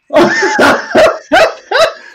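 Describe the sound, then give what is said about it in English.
Someone imitates a dog barking with five loud woofs in quick succession, the first pair run together and the last three spaced by short pauses, with no other talk. “So, woof woof, you know.”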